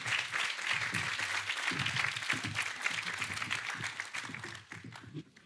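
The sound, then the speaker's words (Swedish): An audience applauds warmly as three guests are invited up to the stage, a dense, steady wash of many hands clapping that holds strong for several seconds before thinning out toward the end. “nu får ni en varm applåd och så får ni ta er upp hit.”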